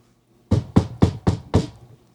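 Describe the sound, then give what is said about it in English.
Five firm knocks on the door of a house around 12:30 in the morning, in a quick, even rhythm, fairly loud, each one a dull thud with a short rap on top, then silence. “30 minutes later, a knock at the door.”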